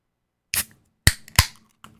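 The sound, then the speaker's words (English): A can of Six Point beer cracks open with a sharp snap and a brief fizzy hiss, followed by two crisp knocks and a faint tap, with no talking. “Oh yeah, the sound of a six point getting cracked open.”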